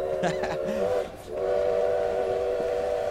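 A train horn sounds in two long, loud blasts with a short break between them, over a steady low rumble of a train rolling along.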